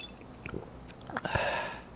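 Someone sips and swallows a glass of ice water: a few soft wet mouth clicks, then a louder slurping gulp near the end, with no one talking.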